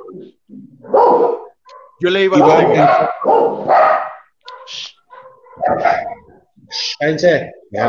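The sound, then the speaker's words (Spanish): The speaker's own dogs bark in several sharp, loud bursts, overlapping with people talking over them. “Ya, ladraron mis perros también.”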